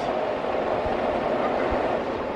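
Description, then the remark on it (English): A steady, loud rumble of a train rolling past near a train station, with a broad roaring wash and a couple of low thuds like wheels crossing rail joints. “We're near a train station.”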